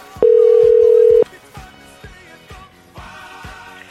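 A single loud, steady phone ringback tone sounds for about a second as a radio show calls a listener's coworker, then cuts off, leaving soft background music with a steady beat playing on.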